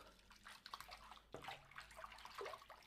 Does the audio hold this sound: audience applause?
no